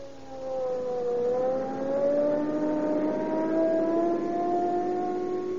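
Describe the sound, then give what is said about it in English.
A police car engine roars as it accelerates hard from five to 80 miles an hour on Rio Grande cracked gasoline, its pitch climbing steadily through the gears into a sustained high-speed whine, loud with no talking. “Now, there we are. 80 miles an hour. Boy, I'll show you what police car performance means.”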